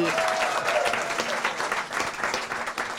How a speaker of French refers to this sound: Applaudissements pour lui aussi.